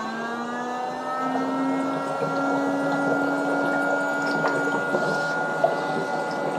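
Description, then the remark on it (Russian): A foot spa bath running in its second mode hums with a steady motor drone while water bubbles and churns continuously underneath, holding even in loudness for several seconds. “гудит немножко посильнее, вода начинает булькать.”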